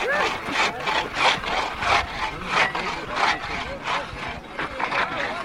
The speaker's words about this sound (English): Once the ice plow has marked out a grid, it's time to cut a channel through which blocks of ice will be floated to the shore. Well, finally, the hatchet breaks through the ice to the water below, and then it's time to put the antique ice saw to work.